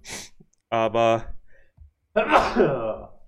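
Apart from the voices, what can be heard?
sneeze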